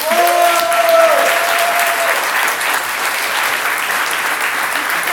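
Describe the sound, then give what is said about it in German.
Sustained applause from a sizable crowd, a dense steady clatter of many hands clapping that fills the whole stretch, with a brief whistle or cheer near the start. “Deswegen wirklich für mich wichtig, wem es nicht gefallen hat, nicht klatschen, aber wem es gefallen hat, gerne klatschen.”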